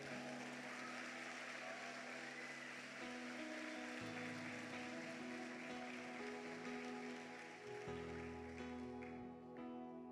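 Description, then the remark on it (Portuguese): A church audience claps for Jesus steadily for about ten seconds, a dense, sustained patter of many hands, while sustained keyboard chords shift underneath. No one speaks. “Pode dar um salve de palmas para Jesus, amados.”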